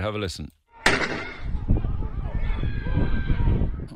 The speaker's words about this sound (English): This, it's this is absolutely. This is the this is the sound of the shot being fired.